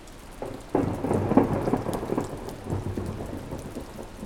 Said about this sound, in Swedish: Det var en sån där dag. En regnig dag.